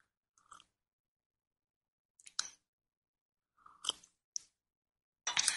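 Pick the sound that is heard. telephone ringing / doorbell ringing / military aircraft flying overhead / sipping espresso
sipping espresso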